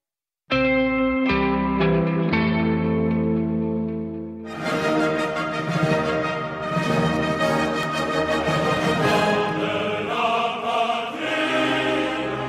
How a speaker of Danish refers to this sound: Det her er lyden af den franske nationalsang La Marseillaise, og grunden til, at vi hører den, det er altså, at franskmændene i går var ved stemmeurnerne.